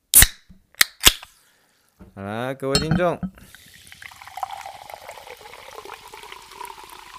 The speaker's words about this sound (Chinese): 都让我们一起听一听气泡水的声音。